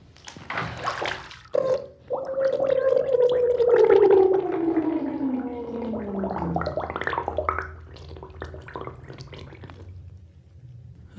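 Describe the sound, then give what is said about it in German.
Muffled underwater bubbling and gurgling as a person dives under the water, with a long sweeping tone that slides downward as air rushes out, followed by softer scattered bubbles and drips fading toward the end. “Ich muss jetzt nochmal tauchen, ja? Moment, ich bin gleich wieder oben.”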